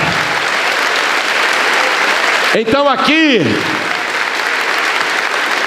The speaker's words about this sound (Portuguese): Vamos aplaudir com júbilo. Vamos nos alegrar.